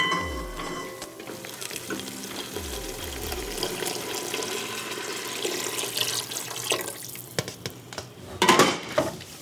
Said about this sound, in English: I just spilled chicken stock all over my kitchen floor in an attempt to make gumbo, one of the 333 recipes in Lena Richards' 1939 cookbook.